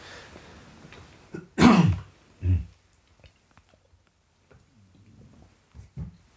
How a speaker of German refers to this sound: Tja, es ist immer noch Winter und man hört, dass meine Stimme immer noch angeschlagen ist. Aber ich bin nicht krank, das ist schon mal gut. Ähm, muss ich mal gucken, ob ich das noch herausschneide, die die Hustegeräusche hier.